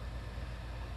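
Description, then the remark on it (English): A window unit air conditioner in a studio drones steadily about four feet from the microphone, a constant low hum with a broad airy hiss over it, unchanging in level throughout and with no voices present. “The microphone I use here in the studio is only about four feet away from the window unit air conditioning.”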